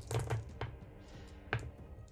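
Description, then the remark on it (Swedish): A few sharp clattering knocks, like dice tumbling onto a hard tabletop: a quick cluster of clicks early on, then another distinct rattle a moment later, fairly quiet. “Jag ska slå några tärningar här.”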